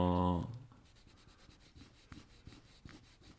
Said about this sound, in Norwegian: Nå visker du ut. Du har tegna med blyant under, og så har du tegna med penn over, og så visker du ut blyanten.